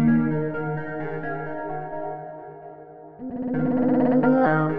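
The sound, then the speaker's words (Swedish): An electronic synth remix with a heavily processed, robotic-sounding voice imitating GLaDOS from Portal. Sustained buzzy tones hold steady, then jump up in pitch and grow louder about two-thirds through. “jag vet inte om man ska kalla dem för synt eller kanske elektro eller liknande”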